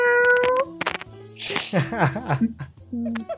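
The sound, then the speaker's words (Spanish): A person imitates a cat with their voice, making a series of drawn-out, wavering meow-like cries, with a warbling, nasal stretch in the middle. “Así que un, un maullido de gato y para que la gente en su casa se imagine tu, tu partecita ahí siendo aumentada por sí misma con este sonido.”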